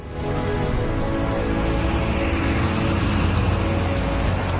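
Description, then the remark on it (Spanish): A car engine hums steadily as the vehicle drives along, a loud continuous rumble with road noise that holds constant throughout, with no voices. “Estoy hablando del coche.”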